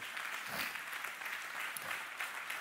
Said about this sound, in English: Put your hands together one more time and clap to the Lord.